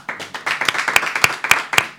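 A short burst of applause, first a dense patter of many hands, then settling into sharp, evenly spaced claps in a steady rhythm.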